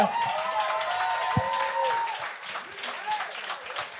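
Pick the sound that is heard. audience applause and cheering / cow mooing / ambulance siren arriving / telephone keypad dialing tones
audience applause and cheering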